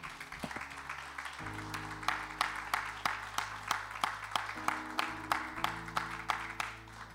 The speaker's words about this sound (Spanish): Dale un aplauso a Cristo, dáselo, dáselo.